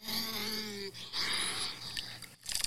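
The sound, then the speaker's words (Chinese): Beaver calls played from a Google search: a drawn-out, whiny cry lasting about a second, then a brighter squealing call and a few short, raspy bursts at the end. No one speaks over them. “Beaver 是水獭，我要给大家听看水獭的声音。”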